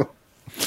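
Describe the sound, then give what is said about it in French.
A single quick sneeze, a short intake followed by a sharp, hissy burst, moderately loud, with no talking over it. “En tout cas, bah, à tes souhaits”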